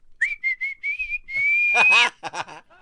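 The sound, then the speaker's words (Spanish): Clear human whistling used as a whistled language: a quick run of short, speech-like whistled notes, then a long rising whistle, followed by brief voice-like sounds at the end. “aldeas esas a chiflarle a los roqueros.”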